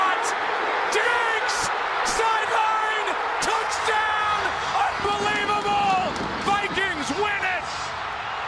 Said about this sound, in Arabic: سكت ايضا اعطى الجمهور حقه بعدين دخل تسمع اصوات تسمع اصوات الفاير ووركس في الباك جراوند تشوف الجمهور يحتفل بالضبط